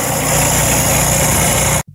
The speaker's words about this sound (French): Pas du tout agressant. Ben, c'est ça, c'est le son d'une souffleuse.